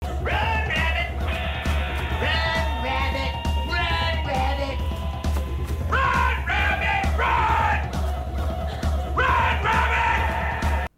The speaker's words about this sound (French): Puis là, on va entendre des images d'Otis qui gueule